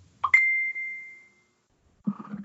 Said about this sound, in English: Oh, who didn't mute their phone? Mine's not even in the room with me, so.